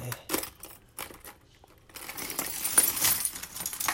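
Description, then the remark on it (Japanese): Metal fishing lures clatter and jingle as they are handled and get tangled, with scattered clinks early on giving way to a denser, continuous rattling in the second half, with no talking. “あちょっとこれ絡まっちゃあああこれこれこれこれあこれルアーなのっていうね”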